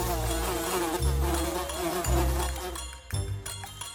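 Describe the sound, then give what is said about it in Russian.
A dense, droning buzz of many grey flesh flies swarming in a room, wavering continuously in pitch for the whole stretch, with a few low thumps underneath and no voices. “Женя просыпается на следующее утро и смотрит, вся комната заполнилась мухами”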